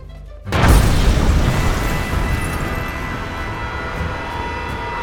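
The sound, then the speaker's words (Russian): A sudden, loud explosion bursts in after a brief quiet moment, followed by a heavy, deep rumble that rolls on and slowly fades over several seconds. No voices are heard. “Но осталось еще семь. Бабахнем.”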